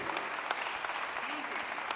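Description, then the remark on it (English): An audience claps for Jesus in a dense, steady wash of applause that fills the room for the whole stretch, with faint voices rising underneath. “Many of us, come on, yeah, clap for Jesus.”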